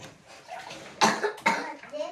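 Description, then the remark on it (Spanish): Two sharp coughs in quick succession, loud and harsh, with faint voices murmuring softly before and after them. “No te estás muriendo, estás tosiendo.”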